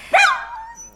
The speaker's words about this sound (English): Isn't that Mordred the Minstrel's dog? We've become very attached. That's a dog, is it?